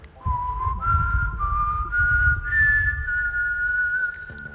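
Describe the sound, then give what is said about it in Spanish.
Someone whistles a short, bright melody as a jingle introducing the segment Teorías conspirativas, the pitch stepping upward through a few sustained notes over a low rumbling background before it cuts off. “Eh, tienes que decirlo, tienes que decirlo y yo hago el silbidito.”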